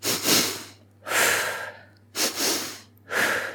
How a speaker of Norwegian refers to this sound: nå har de funnet ut at uh, hvis du tar dobbeltpust, f.eks. dette her